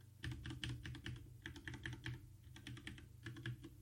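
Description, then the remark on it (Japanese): Steady, fairly quiet typing on a mechanical keyboard with brown switches, a quick run of soft clacky keystrokes with a brief pause midway, no voices. “そしたら届いたやつは、あの、茶軸でしたね。割となんかこう静かな感じの、ね、あんまりそんな音大きい音しなくって、今ちょっと叩いてみますね。”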